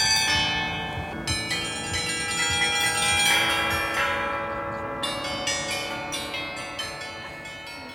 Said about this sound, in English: now that we've got away from the bells, we can carry on.